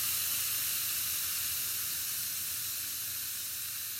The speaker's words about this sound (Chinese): 然后烧一烧一壶水，然后放一个泡腾片，然后你就会听到那个泡腾片那个声音。你放进去，然后唰，就是就而且那个声音会持续的还蛮长，然后会你就会觉得旁边会特别安静。那个声音会特别突出，就感觉很解压。